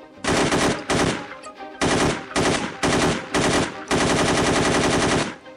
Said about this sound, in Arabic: هما اللي بيضرب اطلاق النار احنا يعني رجعنا لهم